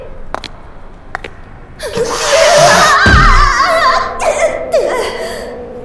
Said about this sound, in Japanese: あなた子供がいたのそっかあなたお腹空かせた子猫ちゃんの母親だったの